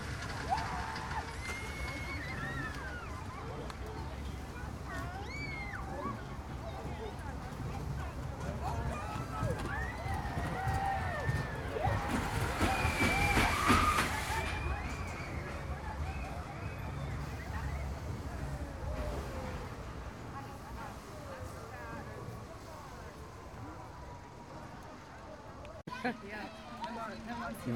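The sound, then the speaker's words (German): A ride on the Eifelblitz roller coaster, built by DAL Amusement Rides Company: steady rumbling and rushing wind throughout, with riders' voices shouting and whooping over it, swelling loudest midway through. “Was ihr gerade gehört habt, waren ein paar Impressionen vom Eifelblitz, der weder von Zierer ist, noch von Zamperla, noch von irgendeiner Firma, die ich jemals gehört habe, sondern von DAL Amusement Rides Company.”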